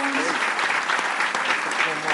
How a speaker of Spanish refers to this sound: ¿Dónde están mis hosts? Pónganse de pie, les vamos a dar un aplauso, por favor, porque qué lindos.